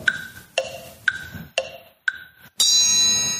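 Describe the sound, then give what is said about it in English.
Five bright, evenly spaced ding sound effects, used as the cue in a pronunciation game, ring out about half a second apart, each decaying quickly, followed by a louder, sustained shimmering chime that holds to the end. “As soon as that ding is heard, each of you in turn will have to mispronounce the word.”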